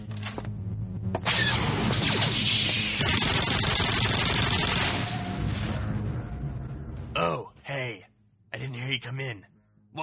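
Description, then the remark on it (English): Loud, chaotic video-game battle effects: dense bursts of double-barreled nuclear plasma cannon blasts and rapid weapon fire pile up for several seconds as an outer-rim planet is conquered, then cut away as a voice begins speaking. “Well, I just conquered the outer rim planet of Pico Palm with my trusty double barreled nuclear plasma cannon.”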